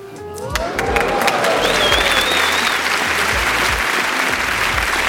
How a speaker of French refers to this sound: Vous êtes mignons vous avez fini par applaudir parce qu'il y en avait d'autres qui applaudissaient